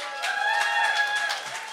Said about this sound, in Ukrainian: Під ваші оплески.